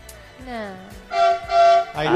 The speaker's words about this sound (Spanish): Con, ustedes el amigo Tren tocando bocinas para no chocarse a nadie en Juan del Campillo. Uy, qué fuerte que es.